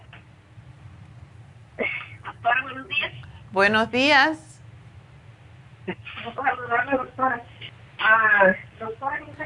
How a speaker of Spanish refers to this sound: Te oigo muy lejos. ¿Te puedes acercar al ah, teléfono? O me lo quita de speaker porque te oigo allá como de ultratumba.